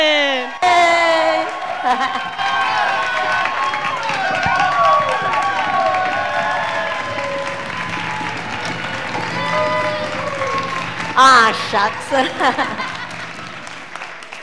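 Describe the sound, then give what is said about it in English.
A crowd applauds and cheers loudly with whoops and shouts, sustained for several seconds, welcoming a pastor, while a voice speaks briefly over the noise. “Let's give a warm warm welcome to Pastor …”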